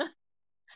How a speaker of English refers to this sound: Bless you.